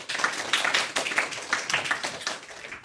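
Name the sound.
applause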